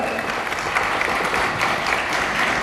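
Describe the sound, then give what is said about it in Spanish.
Sustained audience applause for the Club Élite members, a dense, steady crackle of many hands clapping at once, fairly loud and even throughout with no voices standing out. “¡Ay, un fuerte aplauso por favor para nuestros Club Élite!”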